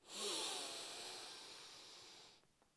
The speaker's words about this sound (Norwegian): Vi gjør det en gang til. Pust godt inn med nesa.